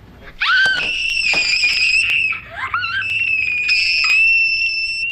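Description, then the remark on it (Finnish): An excited fan at a concert lets out a loud, piercing, high-pitched scream, held for several seconds, breaking briefly and then shrieking again at full volume, without any talking. “Konserteissakin fanit ilmaisivat itseään kirkumalla.”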